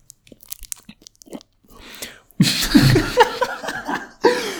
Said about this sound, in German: ich würde sagen, was ich, was ich hier nicht, was ich gerade gehört habe, habe ich gehört. Es war ein Lolli. Es war ein Lolli.